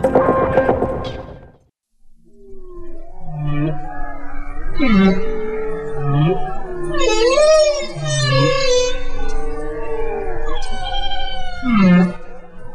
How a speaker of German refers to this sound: Was Sie da gerade gehört haben, das war der Gesang eines Buckelwals. Doch während manche Menschen sich Wahlgesänge zum Einschlafen oder zur Entspannung anhören, ist der Gesang für die Wale ein unerlässliches Mittel der Kommunikation.